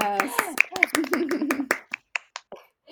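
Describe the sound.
Quick, sharp hand claps ring out over a voice, then thin to a few scattered, isolated claps that trail off toward the end.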